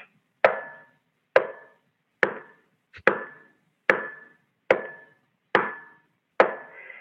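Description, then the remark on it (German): A horse named Hans knocks its hoof on the ground eight times to answer the arithmetic question 3 plus 5, in a slow, steady rhythm, each strike a sharp, hollow thud with a short ringing decay. No voices are heard. “achtmal bei dieser Aufgabe mit dem Huf auf den Boden geklopft und zeigte somit, er konnte die, kannte die richtige Antwort.”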